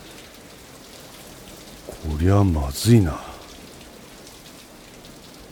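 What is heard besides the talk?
heavy pouring rain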